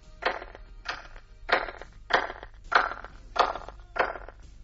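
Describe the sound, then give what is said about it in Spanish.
Seven hand claps in a steady, even rhythm, each one trailing off in a short, diffuse echo, recorded on the right side of the outer stone ring of Stonehenge. No voices, just the claps ringing out one after another. “Si viéramos esas mismas palmas en el lado derecho del anillo de piedras exterior de Stonehenge, escucharíamos esto que el doctor Till ha grabado.”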